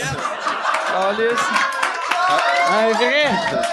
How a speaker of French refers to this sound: La première. C'est la première applaudissement du podcast.